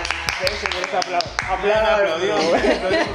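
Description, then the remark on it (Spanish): A woman claps by herself about seven times in a quick, steady rhythm, sharp and fairly loud, then the clapping gives way to lively talking with a hint of laughter. “Ella solita ellas aplaude”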